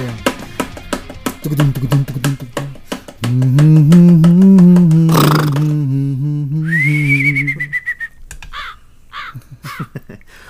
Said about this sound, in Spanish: Dispárale, al cuervo, dispárale al cuervo. O pégale, por lo menos. Pégale, suave, pégale al cuervo. Fuera bicho, fuera bicho, fuera bicho.